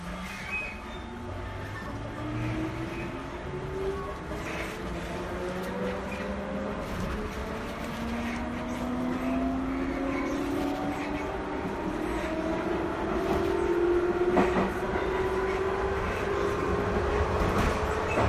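A JR 221 series electric train runs steadily from Nara to JR Namba, its motor whine rising in pitch through a series of gliding tones as it accelerates, over a continuous rumble of wheels and faint rail clatter.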